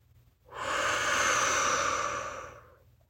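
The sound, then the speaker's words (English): A single long, deep breath in and exhale during a guided meditation, fairly loud, rises smoothly, holds for about two seconds, then fades, with a faint low hum underneath and no talking. “Then take a deep breath in. And as you exhale, let go of any worries or distractions.”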